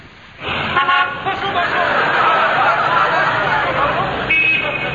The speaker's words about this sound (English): The streets are quiet now, but in a few seconds they'll be filled with the bustle of morning traffic.